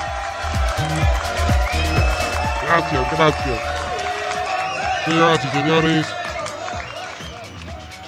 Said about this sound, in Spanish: Y, estamos hablando de noticias exprimidas, señor. Aplauso para las noticias exprimidas.